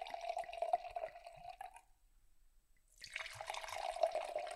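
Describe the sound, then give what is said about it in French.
Wine, the cuvée Chelou, made from chardonnay and chenin in the southern Rhône valley, is poured into glasses in two separate pours with a short silent pause between them, each a steady gurgling splash carrying a bright, ringing tone. No one speaks. “Donc là, je viens de nous servir euh, la cuvée Chelou.”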